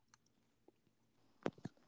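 Chewing of grapes: a few faint, moist clicks, then two louder squishy bites in quick succession against near silence, with no one talking.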